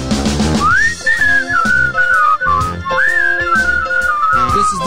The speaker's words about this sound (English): This is the theme to Penrod Show. The opening theme to Penrod Show. This is the music that you hear when all systems are a go. We're almost to the part of where I start to whistle.